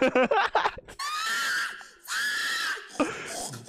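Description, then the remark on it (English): A person lets out a pig-calling yell at a pig calling contest: a burst of quick, choppy syllables, then two long, loud, high, wavering hollers held about a second each, ending in short shouted bursts. “Does this actually call the pigs though?”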